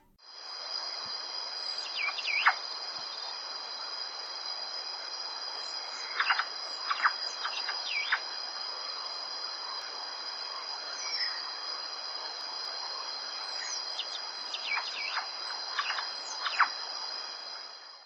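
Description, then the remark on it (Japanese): A grey cuckooshrike, a bird of Uganda, gives clusters of thin, high, downslurred whistles in three separate bursts over a steady, loud drone of insects that runs throughout. “今日ご紹介するウガンダの鳥はハイローンサンショクイです”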